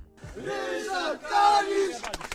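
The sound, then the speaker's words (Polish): A crowd of voices in the street spontaneously shouts the name of the politician Ryszard Kalisz in unison, two long drawn-out calls, loud, followed by a few sharp, clipped bursts at the end. “Lubię jak ludzie krzyczą na ulicy Ryszard Kalisz spontanicznie.”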